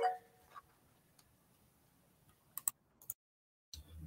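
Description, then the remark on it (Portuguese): A small brush held in the hand scrubs over a computer keyboard to clean it, making sparse clicky rustles: faint ticks at first, then a few sharper bursts in quick succession, a brief silence, and one more scrape. “Eu tô limpando o teclado aqui, por isso que tem escovinho.”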